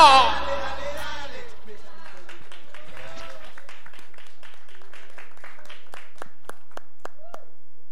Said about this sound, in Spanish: Fuerte el aplauso.